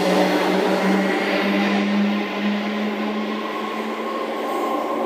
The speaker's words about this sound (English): train's just leaving, so I'll uh, just come back in a second.